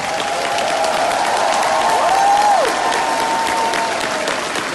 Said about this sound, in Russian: Ну, аплодисментики-то, надо сказать, жидковатые.